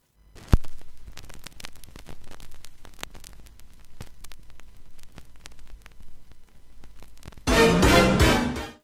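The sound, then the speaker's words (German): Vinyl record surface noise crackles steadily with scattered pops and clicks over a low hum at the start of a record on a record player, then a much louder, fuller sound cuts in for the last second or so. No one speaks. “Ich meine, das Rauschen am Anfang, das ist ja schon die halbe Vorfreude.”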